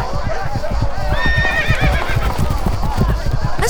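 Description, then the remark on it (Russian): Several horses gallop in a fast, heavy drumming of hooves during a deer hunt in a forest in ancient Rome, while a high, wavering whinny rises over them and fades. The whole passage is loud and busy throughout. “Меня чуть с ног не сбили Тут охота!”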